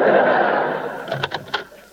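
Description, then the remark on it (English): A door swings open with a fading rush of noise, followed by a few sharp knocks and clicks as it settles. No one speaks. “open that lousy door.”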